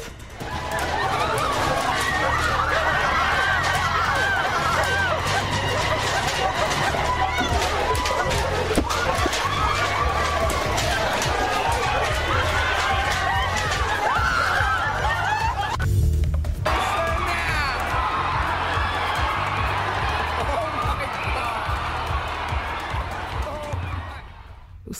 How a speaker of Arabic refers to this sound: هذه أصوات التسوق إذا نعم. ولا شيء غير التسوق